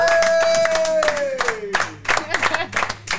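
An audience applauds the losing duo of a game with steady, dense clapping throughout. A falling tonal sound with harmonics sweeps down underneath during the first half.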